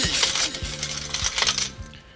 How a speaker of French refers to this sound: Vous avez reconnu hein, le bruit de la caisse enregistreuse derrière et tout et tout.